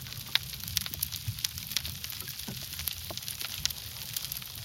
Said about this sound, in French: À la tombée du jour, nous arrêtons le bateau et avec un hydrophone, c'est tout le milieu sonore sous-marin qui se révèle. Invisible à l'œil nu, d'abord des crevettes claqueuses et pistolets émettent des crépitements et des étincelles.